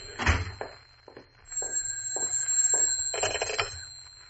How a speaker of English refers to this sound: Oh, and there's my phone. Now what?